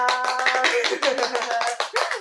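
Dense, continuous clapping from an audience welcoming a performer to recite Shu Ting's poem, a rapid patter of many hands at steady loudness, with faint tonal sounds threading underneath.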